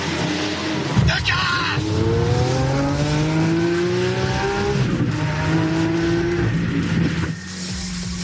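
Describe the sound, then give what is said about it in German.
A Lamborghini sports car roars as it accelerates hard through Berlin, its loud engine note climbing steadily through the gears, with a sharp burst of tire noise at the start. “wenn Leute wie Arafat Abu Chaka mit dem Lamborghini durch Berlin brettern und das Ganze dann prahlerisch live streamen, mächtig stolz auf 150 Kilometer pro Stunde in der 30er-Zone.”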